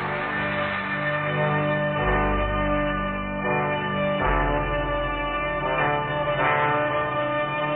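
A song played at slow speed, its stretched notes turned into deep, droning, bell-like tones that ring and smear together continuously, with a steady level throughout and no talking.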